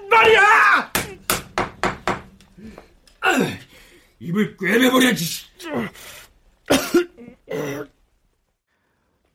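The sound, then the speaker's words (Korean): A rubber mallet pounds on a cold wall during the night, about six quick, sharp thuds in a steady run, followed by rough vocal bursts like coughing and throat clearing. “밤새 여기저기서 저를 향한 쌍욕이 터져나오고 싸늘한 벽에선 고무망치를 쳐대는 소리가 들려왔습니다.”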